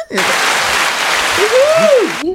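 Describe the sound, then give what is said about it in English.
Steady, dense hand clapping from a group that fills about two seconds at an even loudness, with a rising and falling vocal whoop over it near the end before it cuts off. “Ladies and gentlemen, we got the hand clap today.”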